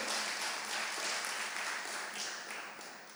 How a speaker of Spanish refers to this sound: Si yo fuera tú, le doy un aplauso al Señor, porque híjole.